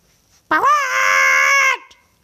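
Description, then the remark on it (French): A live chicken screams once as it is bitten on its left leg: a loud, shrill, sustained squawk lasting just over a second, holding a steady high pitch before cutting off abruptly, with no talking around it. “Le poulet hurla.”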